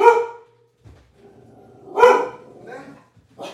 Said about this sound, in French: Non, le clébard, on a rien à te donner. Hein. Ouais. Arrête donc de japper.